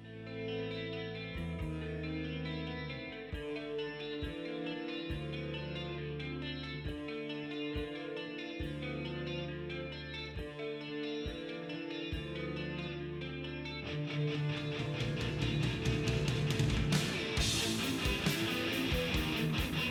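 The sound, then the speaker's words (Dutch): A song passage led by a prominent bass guitar, holding deep notes that shift in a steady repeating pattern, before the full band swells louder and denser near the end. No one speaks. “ja, dat was, dat was een lead bass.”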